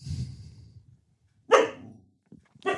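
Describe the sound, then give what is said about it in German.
A dog barks sharply two times at visitors, with a pause between the loud barks and some low rumbling and breathing before them. “Und jetzt hören wir sie gerade wieder.”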